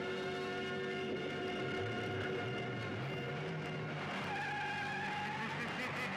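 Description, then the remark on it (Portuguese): A motorcycle engine drones loudly and steadily, its whining pitch rising and shifting as it revs and pulls away, with no voices over it. “Saiu na moto dele”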